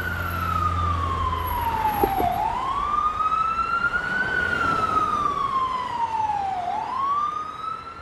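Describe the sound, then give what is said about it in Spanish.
An ambulance siren, heard from Los Chorros de Milla, wails loudly and steadily, its pitch sweeping slowly up and down in long cycles, with a low rumble of road traffic underneath and no one talking. “Se escuchó la sirena de la ambulancia desde los chorros de milla porque los paramédicos estaban comiendo en el restaurante chino muy cerca del incidente.”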